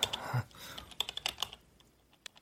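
Computer keyboard typing loudly, ringing through a room as someone writes a story, with quick, irregular key clacks that come thick and fast at first, then thin out into scattered taps with a final stray keystroke.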